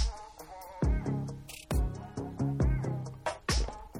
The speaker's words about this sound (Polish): Znalazłem rano też jakąś taką muzykę, która jest w miarę znośna.